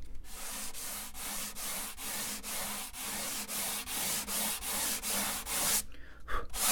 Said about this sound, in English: when I'm sanding, I'm listening to the sound of the sandpaper, which can change a little bit as I remove the wood. It kind of gives me an indicator of when to stop.